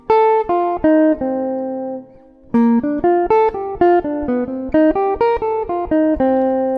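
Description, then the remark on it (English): A jazz chord progression, B flat major 7, G7, C minor 7, F7, played as steady arpeggios on a sustained, tone-rich instrument: a first phrase of notes, a brief pause, then a longer run of evenly spaced rising and falling notes, with no voices. “B flat major 7, G7, C minor 7, F7.”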